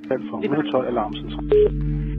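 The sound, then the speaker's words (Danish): A short run of electronic telephone keypad tones as the emergency number 112 is dialed, steady beeps layered with a low hum, plus a longer, louder tone near the end. A voice seems mixed in early on. “Hun ringer 112, og i telefonen hyperventilerer hun, mens hun forsøger at forklare sygeplejersken, hvad der er sket.”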